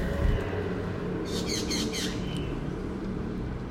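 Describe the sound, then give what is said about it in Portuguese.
Birds call noisily in a quick burst of high, repeated chirps lasting about a second, set against a steady, loud low rumble of background noise; no one speaks. “são tão lindos e tão barulhentos. Então, ó, deixa eu ver se vocês conseguem ouvir o barulho deles aqui.”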